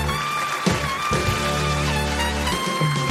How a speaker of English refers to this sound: Listen to the trumpets.